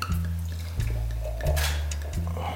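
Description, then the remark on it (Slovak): Dry sparkling Muškát moravský frizzante wine from Modra glugs and splashes into a glass in several short bursts, with a faint fizzing hiss between pours, moderately loud, with no talking. “naše bublinky, frizante sítené, je to muškat moravský suchý, ktorý pochádza z modry, z našej najväčšej mladej výsadby, tak dovol, aby som ti nalial, aby sme prechutnali.”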